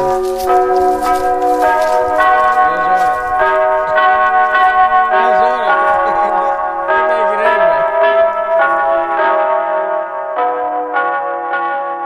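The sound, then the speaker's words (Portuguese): A church bell melody plays through a loudspeaker in a village in Portugal, a steady sequence of ringing chimes with a slightly tinny, amplified quality, continuous and fairly loud, with faint voices in the background. “o altifalante do sino da igreja toca, está na hora de ir ao centro da aldeia.”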